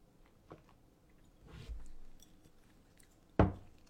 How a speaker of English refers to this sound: i'm just gonna take a sip of my um my juice